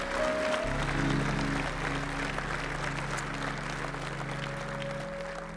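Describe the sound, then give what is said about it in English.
An audience claps their hands for the Lord in sustained, dense applause over a steady organ-like drone, the clapping continuous and full throughout with no pause. “Now, come on, give the Lord a big hand clap if you're glad to be here today.”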